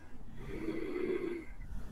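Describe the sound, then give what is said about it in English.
A single long, throaty breath drawn through the nose in ujjayi (warrior breath) yoga breathing, made by slightly lifting the soft palate, with a soft, ocean-like rasp lasting over a second, with no talking. “But if you can do that, you can make ujjayi breathing, the, the warrior breath, because you see my tongue is out.”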